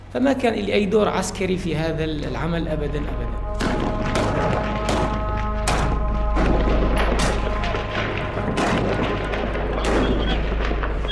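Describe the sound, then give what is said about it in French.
Loud, irregular bursts of gunfire crack again and again over a heavy, booming low rumble like explosions during an attack on Asake prison on the evening of 20 January 2022, after two car bombs rammed its entrances, with voices shouting in the first few seconds before the shooting takes over. “Deux véhicules piégés foncent successivement sur des entrées de la prison d'Asake. Un ensemble de bâtiments protégés par des murs d'enceinte. Des tirs s'ensuivent.”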